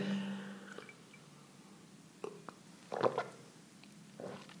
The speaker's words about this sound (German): Entschuldigung. Trink halt mal einen Schluck.